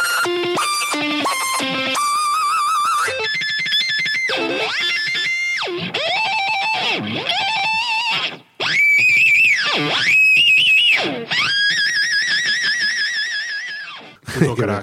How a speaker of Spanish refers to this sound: Ahí está. El famoso Wami haciendo los barridos. Porque esto no es un guagua. Está octavando.